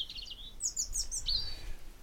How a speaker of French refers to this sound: on entend les oiseaux qui gazouillent, on est en plein dans la nature.